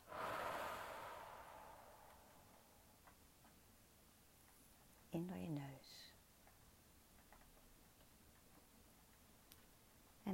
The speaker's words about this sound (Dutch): En begin eens met een diepe ademhaling. In door je neus en uit door je mond.